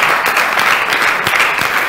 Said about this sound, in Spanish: Denle un aplauso al Señor, por favor, sí.